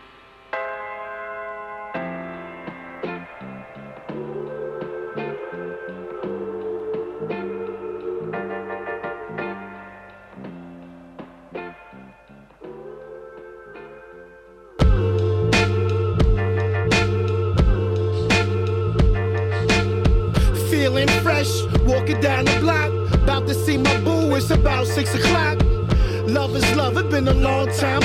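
A hip-hop track from an EP opens with a looping, chiming bell-like melody, then about halfway through a loud beat of punchy kick drums, snares and deep bass drops in under the melody.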